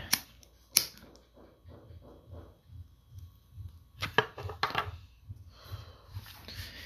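Several sharp clicks of a kitchen lighter being snapped repeatedly come in uneven bursts with brief rustling and handling noise between them. No one speaks.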